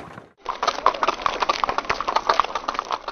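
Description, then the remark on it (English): Rapid, dense clip-clop of two horses galloping fast begins abruptly after a brief quiet moment and continues steadily, fairly loud, with no voices. “We see two horses following fast, coming up from the south Seward and Harker.”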